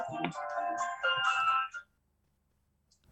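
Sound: phone ringing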